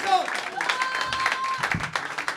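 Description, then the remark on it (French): An audience claps steadily in a dense, continuous patter, welcoming the next performer, with a few faint whistles and voices cutting through the applause. “On l'applaudit jusqu'à ce qu'il”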